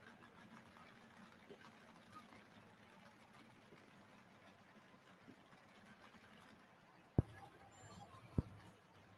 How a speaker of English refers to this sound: Pine Tractor coming out of Lindsay, Texas. Duck Both calls it the Griffin Growl. This tractor is running a Rolls Royce V12, 2,240 cubic inches, used in the Spitfire fighter aircraft from England in World War II.